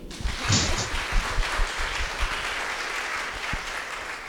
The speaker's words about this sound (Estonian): nii, aga väga tublid, aplaus ikkagi.